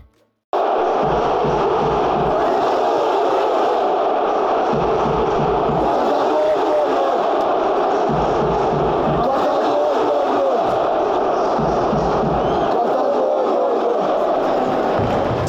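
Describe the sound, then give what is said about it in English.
A loud, dense football stadium crowd chants steadily during a match involving Besiktas, with rhythmic surges swelling every couple of seconds over a constant roar of many voices. “in keeping with our tradition of uh, playing stadium sounds direct from the match.”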